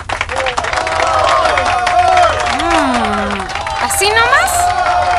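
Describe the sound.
An audience applauds for about five seconds, the clapping steady and fairly loud, mixed with overlapping shouts and cheering voices throughout.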